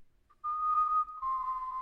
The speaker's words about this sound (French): J'ai sifflé plus haut que le train qui nous emmenait à l'est. J'ai sifflé dans les baraques, au milieu des fantômes, dans les usines du camp, parmi les étoiles jaunes. J'ai sifflé encore plus fort, plus fort jusqu'au dernier moment